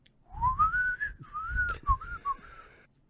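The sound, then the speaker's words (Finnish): Someone whistles a short, breathy melody imitating pan flutes, opening with a rising glide into sustained notes and ending with a few quick, clipped tones. “ja sitten se alkoi viheltelee sinne panhuiluihin.”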